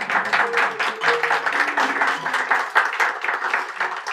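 Steady applause from an audience for a volunteer called up by the speaker, a dense wash of many hands clapping at once, continuing without a break for several seconds with faint voices mixed in underneath.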